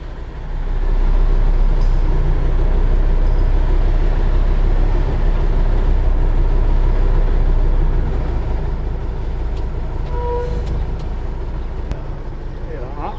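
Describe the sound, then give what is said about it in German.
A heavy vehicle's engine rumbles steadily as air brake pressure builds after having had none, then it pulls away with a deep, sustained drone, brief hisses and clicks, and faint muffled voices in the background. “Erstmal Druck aufbauen und jetzt geht sie los, die Fahrt.”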